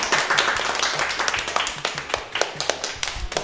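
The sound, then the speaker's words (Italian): A short burst of applause from a small group for a show segment, "la rubrica dei perché", dense clapping at first that thins into scattered, distinct claps toward the end, with no voices over it. “un grande applauso per eh, la, una delle mie rubriche preferite, la rubrica dei perché.”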